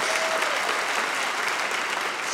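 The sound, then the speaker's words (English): An audience applauding steadily after being asked to clap if they have kids, many hands clapping in a dense, even wash of sound that holds at a fairly loud level throughout, with no voices standing out. “Round of applause in here if you have kids.”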